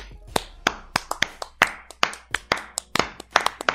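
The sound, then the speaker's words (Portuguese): Hand clapping: a quick, uneven series of sharp, crisp claps lasting a few seconds, with no voices, like a small group applauding briefly. “Quer dizer, palmas, né?”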